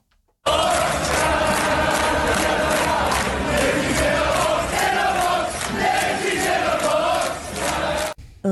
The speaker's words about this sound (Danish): Det her det er fra en fodboldkamp i Dublin, hvor tilskuerne bryder ud i sang.